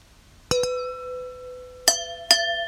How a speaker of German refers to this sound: Also, ich habe hier auch ein Weinglas und ich habe einen Spätburgunder, Buntsandstein. Und von 2017. Und wir stoßen jetzt mal an. Ich, ich stoße jetzt mal Glas und ähm, Flasche aneinander.